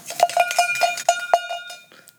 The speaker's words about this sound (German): Bisschen eine klägliche Kuhglocke. Hallo? Nichts gegen meine Glocke? Ja, nichts gegen meine Glocken.